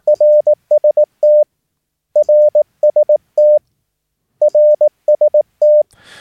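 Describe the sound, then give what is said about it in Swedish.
A steady, single-pitched Morse code tone keys out the same short RST signal report (readability, signal strength, tone) three times in a row, crisp, with no talking and a brief rustle at the very end. “Och ni kommer höra det här ganska frekvent i CWQ-zonen. Ni kommer höra följ följande rytm.”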